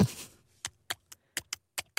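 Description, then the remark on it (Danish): iPhone keyboard tapping: about seven short, crisp clicks at an uneven typing pace, fairly quiet, after a brief opening burst of noise. No one speaks. “Og så hvis folk sidder og har for eksempel den der, har tastelyd på deres iPhones.”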